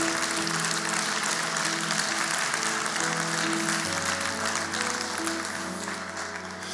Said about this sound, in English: Anybody here ready to serve Jesus? Come on, put your hands together if you're ready to serve Jesus.